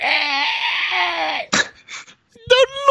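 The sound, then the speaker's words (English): A voice imitates a velociraptor answering the phone, playing Dolores, a velociraptor secretary at the Sacramento branch: a long, loud, raspy screech held for over a second, then a few short breathy snorts and a final shrill, warbling cry. “She is a velociraptor with enhanced intelligence at the Sacramento branch. When you answer the phone, you hear.”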